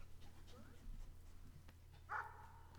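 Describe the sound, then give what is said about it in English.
Faint dog sounds over a steady low hum: soft whimpering noises early on, then a short, sharper bark-like yelp near the end, all fairly quiet; dogs in a tunnel. “oh God, the the dogs have teamed up with Bert.”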